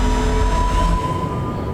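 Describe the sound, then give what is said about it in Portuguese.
A steady, loud engine drone fills an airplane cabin on a flight returning to Brasília, Brazil, with deep rumble underneath and a faint whining tone running through it, constant for the whole moment with no voices. “Agora estou no avião, retornando a Brasília.”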